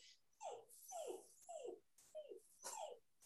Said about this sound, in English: That's like the Poor perfect baby. puppy cry. Right? Poor baby.